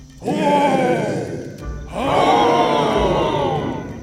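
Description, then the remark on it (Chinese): Two long, loud Tyrannosaurus roars in a row, each a deep, rumbling growl that swells and slowly fades, with a brief gap between them and no talking. “暴龙的声音非常大，一吼就可以传得很远。”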